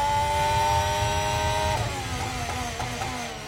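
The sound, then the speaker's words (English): A Formula 1 car's high-pitched engine screams, heard onboard during one full lap with Charles Leclerc going into the bus stop, holding a steady whine before dropping sharply as he shifts down five gears into second, with rapid pitch changes and no voices. “So we're going to go on board here now, guys. We're going to go on for one full lap.”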